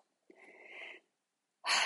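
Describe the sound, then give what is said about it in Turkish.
A slow, deep breath drawn in, followed after a brief pause by a louder, airier rush of breath cut off at the end. No one speaks. “Oturacağım, bir derin nefes alacağım.”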